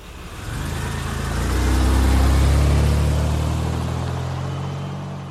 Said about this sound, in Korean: 아버지 목소리와 함께 둘째내 차가 출발했다.